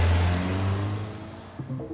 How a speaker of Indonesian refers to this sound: Umar HN membawa mobilnya mengebut ke arah Krenggeke.